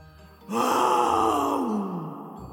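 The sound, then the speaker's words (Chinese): A single distant roar bursts in abruptly, then holds as a rough, growling tone that slowly sinks in pitch over about two seconds before trailing away. No one speaks. “就在这个时候，从远处传来了一声吼叫声”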